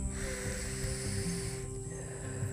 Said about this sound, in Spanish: Inhala por la nariz y bota por la boca. Inhala nuevamente y bota por la boca.